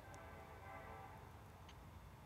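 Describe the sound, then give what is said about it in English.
A train rolls past with a steady, dense rumble and a faint metallic whine above it, holding level throughout with no voices. “Let, let's s- listen to this train.”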